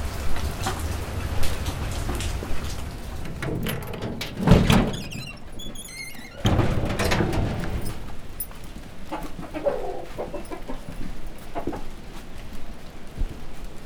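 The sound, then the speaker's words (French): Steady rain patters down on a surface in Wakabamba, a continuous hiss with scattered drips, while a rooster or other birds call faintly and a door-like thump sounds briefly. “Voilà, il a commencé à pleuvoir à Wakabamba et c'est qui nous invite à rentrer euh, voir l'élevage de lapins.”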